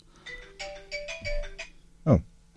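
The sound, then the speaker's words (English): A phone rings with a quick run of bright electronic ringtone notes, followed by a brief louder burst that sounds like someone reacting. “That's not Drew Harris on the phone by any chance.”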